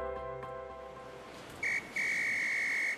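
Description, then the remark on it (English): A lifeguard on a beach blows his whistle twice while pointing, directing people in the surf to move further down the beach, over a steady wash of background noise: a short shrill blast, then a longer piercing one held for nearly a second, high-pitched and loud. “Um, is the lifeguard pointing and blowing his whistle at us?”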